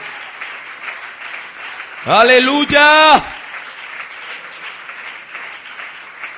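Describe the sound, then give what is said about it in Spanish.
At a Christian worship service, an audience gives steady applause to God, filling the whole clip with a dense, even patter of many hands, while a voice briefly shouts a drawn-out exclamation over it midway through. “Dele ese fuerte aplauso a la majestad del universo.”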